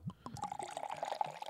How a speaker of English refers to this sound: You need to pour more vodka so we can get more audio. Just fill up the Oh, whole glass. How about that?